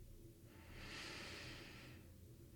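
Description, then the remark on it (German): A single slow, deep breath, a soft airy rush that swells and fades over about a second and a half. It's quiet, with a faint low hum underneath and no talking. “Atmen.”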